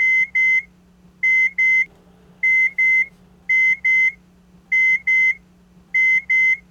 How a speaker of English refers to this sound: I will now let you hear the timer. When it goes off every two, four, six hours, and so on, it will emit a beep. The beep sounds like this.